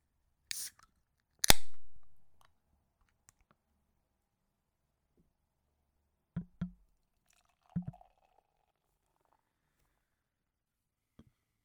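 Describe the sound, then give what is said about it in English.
A beer can cracks open close to the microphone with a sharp click and a brief fizzing hiss, then a few low, hollow glugs of the beer being poured follow amid quiet. “next time hold it up closer to the microphone so you can hear it because the audience wants to hear the sound of the beer so they can imagine what it's like.”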